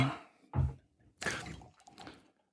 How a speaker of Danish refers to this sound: Kan jeg få det vandglas der? Ja, det må, du, det må du da gerne. Jeg hælder lige vandet ud.